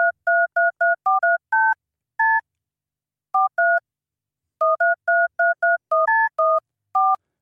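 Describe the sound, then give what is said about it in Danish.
Telephone keypad tones dialing a phone number whose tones form a melody from a song: a quick run of clear, short beeps in varying pitches, broken by brief pauses into several groups, heard alone with no talking. “Og dagens telefonnummer lyder sådan her.”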